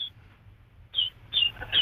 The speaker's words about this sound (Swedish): Du har en fågel som sjunger så glatt där också. Hör du, det är en kanariefågel.